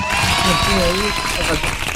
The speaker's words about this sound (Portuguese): E parabéns, então palmas.